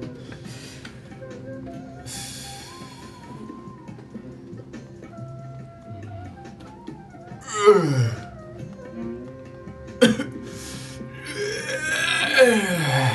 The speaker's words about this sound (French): Tu t'assois, tu bailles. vous l'entendez d'ailleurs, et là où les renflements font trembler les murs et le sol autour de sa chambre, son bâillement fait résonner toute la maison.